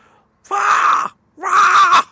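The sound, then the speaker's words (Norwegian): A person imitates a common red fox's scream with two loud, drawn-out, hoarse cries, each lasting about half a second, separated by a short pause, with no other sound. “Det fins jo flere revearter, men den vanlige rødreven den har en sånn”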